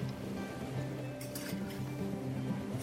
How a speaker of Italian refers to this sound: E scusa, ma dov'è un posto più indicato per scrivere dell'acqua se non vicino all'acqua? Sentire il sussurrio dolce delle onde che abbracciano gli scogli,